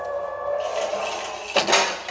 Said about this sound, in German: Freddy hat erstmal die Tür eingetreten. Danke dafür, Freddy.